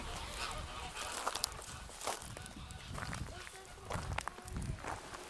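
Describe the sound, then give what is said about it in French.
Water birds (scarlet ibises, roseate spoonbills and Ridgeway ibises) call and honk in a busy, overlapping chorus while waiting for their afternoon ration of fish, several fairly steady voices, with someone talking underneath the calls. “Alors les oiseaux d'eau ici on a des ibis rouges, des spatules roses, des ibis de Ridgeway. Ils nous attendent tous pour la ration de l'après-midi.”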